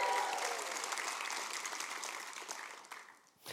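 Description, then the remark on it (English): A church audience claps and cheers together to welcome the Carlinville campus, online viewers and first-time guests, a dense, steady wash of applause that holds for a few seconds and then tapers off near the end. “Can we make some noise in the house for them?”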